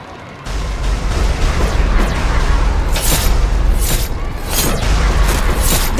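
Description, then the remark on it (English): Continuous battle noise with a heavy low rumble, punctuated by several sharp, bright bursts of gunfire and booming blasts at irregular intervals, loud throughout. “Stop stuttering and fire. Here they come.”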